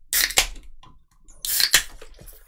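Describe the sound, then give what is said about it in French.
Two short bursts of bright, hissing fizz and splashing as Guinness is poured from a can into a glass, separated by a brief quiet gap, with no voices. “Là, je vais ouvrir la Guinness rapidement. on prend la canette, puis on la verse dans le vent.”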